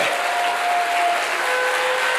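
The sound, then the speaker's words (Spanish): An audience at a church service breaks into loud, sustained applause for God, a dense steady wash of many hands clapping at once with no voices standing out, continuing evenly throughout. “Suelte la Biblia y dele un fuerte aplauso al que vive.”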